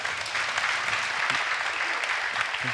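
A crowd claps steadily, a dense wash of many hands sustained at an even level for the whole stretch, with no voices standing out above the applause.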